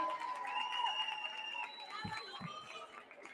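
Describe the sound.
An audience in Tarragona applauds as a representative of the Carmelites comparsa goes up to collect an anecdote prize, with steady, dense clapping mixed with cheering voices and a few low thuds, holding fairly loud throughout and easing slightly toward the end.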